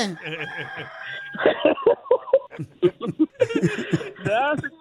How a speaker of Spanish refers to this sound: Acá está un gallo pidiendo que dónde está la gallina que dejaste.